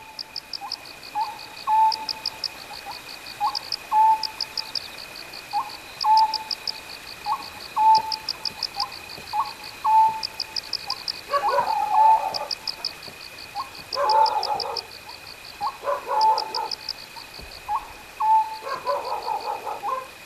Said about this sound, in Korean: 시골의 편안하고 한적한 밤입니다. 한적한 시골 마을에서 어느 밤에 들었던 그 소리들이네요.